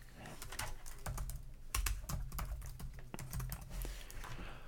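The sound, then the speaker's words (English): Rapid, uneven clicking of keys on a computer keyboard as "Mondex" is typed into a search engine, with sharp taps clustered in quick bursts and a few heavier strokes, steady and fairly loud with no voices. “If you want to see how the government is behind it, go to a search engine and type in Mondex.”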